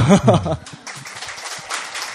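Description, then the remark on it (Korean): A short burst of voiced sound, like a laugh, gives way to a cheap-sounding applause sound effect, a dense, crackling wash of clapping that keeps a steady level for over a second. “아, 여기 박수 되게 싸다.”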